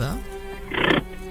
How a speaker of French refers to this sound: Oula Qu'est-ce que c'est que ce bruit C'est ah tombé de la chaise. C'est la chaise. C'était un, un, fauteuil de voiture qui a été reculé, c'est tout.